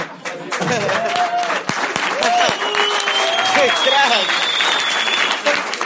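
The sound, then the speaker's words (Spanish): An audience applauds loudly and steadily for several seconds, a dense wash of clapping with scattered whoops and a long high whistle rising over it. “Me gusta que aplaudan.”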